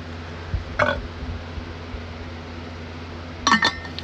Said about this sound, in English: Sorry, I'm drinking water.